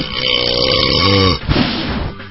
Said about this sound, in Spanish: Es que no me gusta que, que, que mi novio eructe